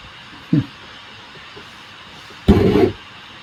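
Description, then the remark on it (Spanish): A faint, steady hiss of white noise from a Mac computer's processor, with many programs open, runs through the whole recording, briefly interrupted by a short vocal sound and a louder burst of chuckling near the end. “Sí, no, ahora el, ruido blanco ahora es el Mac, chaval. Es el, el procesador del Mac.”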